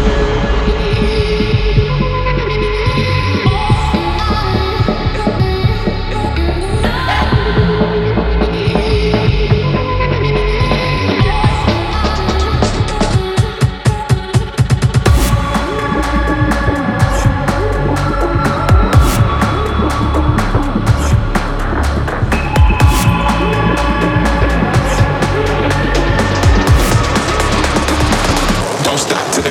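A loud electronic dance track, one played on a DJ's Musical Freedom Radio Show, plays continuously on Record with dense synth layers and a throbbing low bass; a sharper, driving beat comes in about halfway through. No one speaks.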